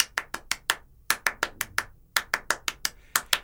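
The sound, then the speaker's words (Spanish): Crisp hand claps beat out a syncopated huapango rhythm, repeating in quick groups of five or six with short pauses between, with no voices. “representan a dos amigos de Alvarado que se están diciendo cosas en el eh, estilo de Alvarado y eh, aparece este, este ritmo en todo el guapango.”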